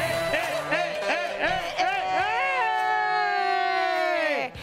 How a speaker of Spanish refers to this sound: Qué desnutrido se escucha el grito